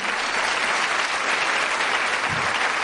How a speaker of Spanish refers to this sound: Así que fuerte, un fuerte aplauso para todos los que hacéis el negocio sin pareja.